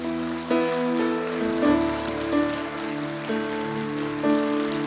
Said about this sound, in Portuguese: Você pode dar um aplauso para o Senhor?